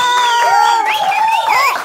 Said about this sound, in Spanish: Litsi y Armando Hernández, un aplauso.